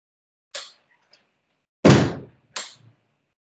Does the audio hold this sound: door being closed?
yes